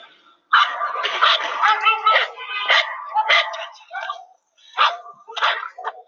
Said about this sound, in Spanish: Era una fría tarde. Yo estaba caminando por una calle muy solitaria cuando de pronto un perro comenzó a ladrarme.